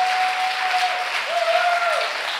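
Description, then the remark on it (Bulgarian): An audience claps in a dense, steady wash of applause for the whole stretch, with a thin sustained tone running underneath that wavers and drops away near the end. “О, ако ръкопляскаш, ръкопляскай като че вярваш.”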